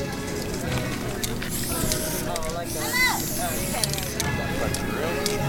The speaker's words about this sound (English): I think it's amazing what people can do with the spray paint can.